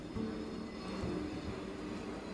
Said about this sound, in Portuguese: Tá passando avião, não vou editar isso.